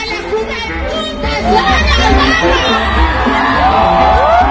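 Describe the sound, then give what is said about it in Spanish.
A loud, rising scream from a singer performing live cuts through a dense, cheering concert crowd, with overlapping shouts and whoops filling the space throughout before the high cry peaks near the end. “Híjole, se aventó un grito bastante cotorro.”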